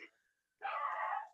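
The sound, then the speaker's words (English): A dog barks excitedly: a quick yip, a brief pause, then one long, rough, drawn-out bark. It is moderately loud, with no one talking. “that's my dog's going crazy.”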